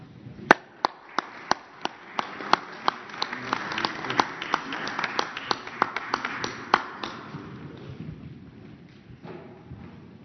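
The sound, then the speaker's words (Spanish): Audience applause at a presidential press conference: sharp individual claps quickly thicken into a dense, steady patter of many hands, holding for several seconds before thinning out and fading near the end. The applause is for the health association and the business, academic and civil-society representatives who are helping. “Este, les damos un aplauso.”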